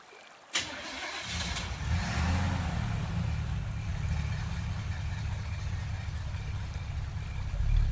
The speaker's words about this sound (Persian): همین که به دوستانش رسید صدای موتور ماشین را شنید که دم به دم دورتر می شد ناشناس و آقای مودت دیده بودند که دستهای لاک پشت به حرکت درآمد و اتومبیل مشکی رنگ زیبا دور شد